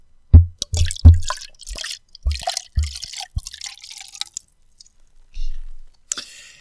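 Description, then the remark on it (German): Drink is poured into glasses, filled to nearly the same height, in a series of short, splashy bursts, with sharp clinks and drips between them, followed by a brief trickle and a final splash. “Ich habe fast wieder perfekt gleich hoch eingeschenkt.”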